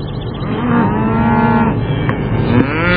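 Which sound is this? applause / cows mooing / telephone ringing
cows mooing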